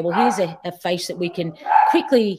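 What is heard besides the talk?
dog barking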